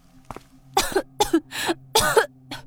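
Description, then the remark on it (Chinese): A fit of harsh, violent coughing from someone waking up: four loud, raspy bursts in quick, uneven succession, with a small faint cough before and a short one after, no talking. “随着一阵剧烈的咳嗽声。”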